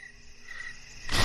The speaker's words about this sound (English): Wow. Crickets. All right. Oh no, they've Oh. come to ruin the harvest. There's so many crickets.